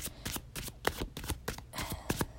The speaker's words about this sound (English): I'm going to shuffle these cards right now.